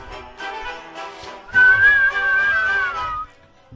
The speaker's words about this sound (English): Sorry, it's my phone.